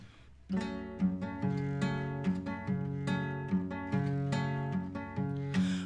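Instrumental opening of a bambuco song: steady, rhythmic chords with bright, sharp attacks over a sustained low bass line, played loud and close, with no singing or talking.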